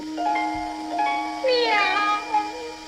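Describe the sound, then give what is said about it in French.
In a film scene, Anita, with a cat on her head as she heads for the Trevi Fountain, mimics a cat's meow in a drawn-out, rising-and-falling wail, clear, with a steady low hum underneath and no other talking. “Ça, c'est elle qui fait le miaou, c'est pas le chat.”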